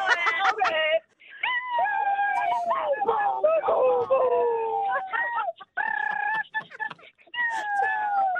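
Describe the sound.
A person imitates fireworks with a run of loud, high sliding squeals and whistling tones that sound almost bird-like, broken by a few brief pauses.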